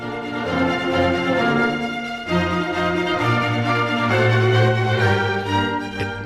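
Late 18th-century sacred music by Ramón Garay, composed at Jaén Cathedral around 1790: a full, steady ensemble of sustained harmonies and moving melodic lines, loud, with no voices speaking over it.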